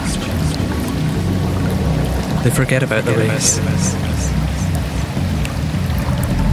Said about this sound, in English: Upon reaching the waterfall, they stare as water stirs the river and drowns their endless chatter.